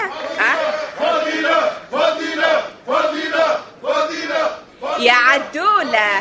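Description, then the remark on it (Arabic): An audience shouts and calls out in loud, rhythmic bursts, repeating the same call about five times with brief pauses between, the voices blending into a strident, crowd-like chant. “الجمهور يعيط لي تسمع فيه”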